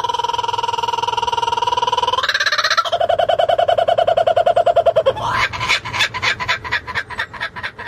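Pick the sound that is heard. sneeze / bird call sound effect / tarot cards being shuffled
bird call sound effect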